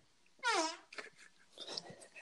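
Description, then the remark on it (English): A single loud, brassy fart lasting about a third of a second, followed by quieter scattered rustles and faint chuckling. “Everybody likes a good fart.”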